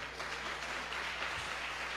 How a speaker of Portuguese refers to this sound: Você pode aplaudir ao Senhor.